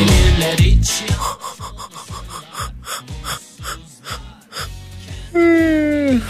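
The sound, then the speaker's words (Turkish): A long yawn: a run of rhythmic, breathy gasping inhales, then a loud, drawn-out voiced groan that slides downward in pitch at the end. “Ben estersem sizlere esnetirim. Sizler esterseniz bu saat duymakta güçlük çekenleri esnetirsiniz.”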